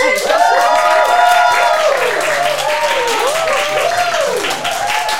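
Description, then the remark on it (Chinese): A live audience screams and cheers loudly and without letup as a guest is introduced, drowning out the introduction, high shrieks rising and falling over a dense wash of applause for the whole five seconds. “老师刚刚的介绍完全被尖叫声淹没”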